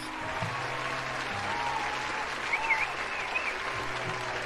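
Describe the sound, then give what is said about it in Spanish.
An audience claps steadily for several seconds for tonight's contest winner, a dense, even wash of applause with a few faint cheers or whistles rising briefly above it. “Denle acá sus aplausos.”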